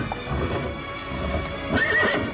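A horse lets out a high, wavering whinny near the end, following a steady clip-clop of hooves on hard ground. The sounds are fairly loud, with no voices.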